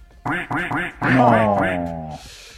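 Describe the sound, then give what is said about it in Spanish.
Three quick nasal duck quacks in a row, followed by a longer drawn-out quack that trails off, loud like a sound effect, ending with a brief soft hiss. “Ay, cuántos patos se merece eso.”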